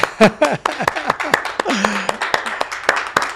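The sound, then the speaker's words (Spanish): A few people clap in sharp, uneven bursts while voices whoop and call out in falling, pitched cries, forming a short, lively round of audience applause. “¡Aplausos!”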